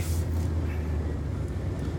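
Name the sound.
car driving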